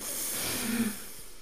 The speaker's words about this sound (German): Ähm, atmet mit uns kurz ein, tief einatmen.